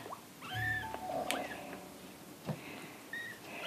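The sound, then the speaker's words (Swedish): Several thin, high-pitched mews from three kittens, a few short cries spread across a few seconds with faint background rustling and no talking. “Nej, vi håller på att skåda småkatter.”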